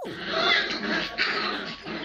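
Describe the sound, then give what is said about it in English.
A puppy and a kitten tussle, a steady scuffle of rustling and small growls running for a couple of seconds with no talking. “I think they're like tussling a little bit there.”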